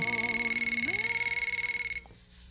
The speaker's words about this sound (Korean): 아이들과 남편을 보내놓고 커피 한 잔의 여유를 즐기고 있는데 갑자기 전화벨이 울리더군요.